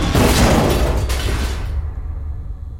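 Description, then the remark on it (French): A wooden staircase collapses in a loud, heavy crash of splintering and clattering debris that lasts under two seconds, then fades into a low, lingering rumble. “Qu'est-ce que j'avais dit L'escalier n'a pas tenu.”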